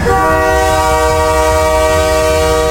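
A loud train locomotive horn sounds one long, steady blast, a chord of several tones held for nearly three seconds over a low rumble. No one speaks.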